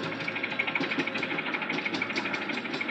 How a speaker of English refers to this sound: Then the men moved in with the pontoons, and other crew members dropped a suction hose into the water filled hull and started a pump to empty.